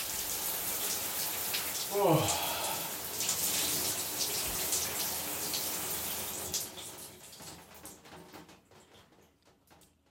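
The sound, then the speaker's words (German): Cold shower water runs in a steady hiss that fades out toward the end. A person gasps a brief exclamation near the start. “Zum Abschluss kann ich deswegen nur sagen, ab unter die kalte Dusche.”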